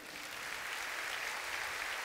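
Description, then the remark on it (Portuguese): A church audience claps steadily for the production team at the church's 30th anniversary, a dense, even wash of applause that holds at a constant level for a couple of seconds with no voices standing out. “Uma salva de palmas para toda essa equipe.”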